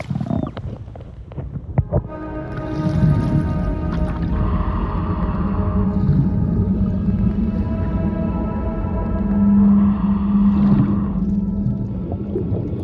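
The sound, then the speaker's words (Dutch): A blue whale's deep, drawn-out song rumbles underwater, heard through a listening device, a low moaning tone with layered harmonics that stays loud throughout, with no voices over it. “Wat een machtig geluid. Jongens en meisjes, dit is een echte blauwe vinvis.”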